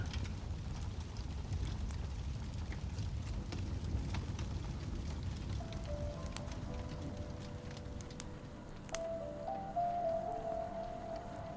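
Steady rain from a thunderstorm pours down on a stormy evening in a dense, even hiss, scattered with sharp drips and patters and a low rumbling underneath; a thin whistling tone joins partway through. No one speaks.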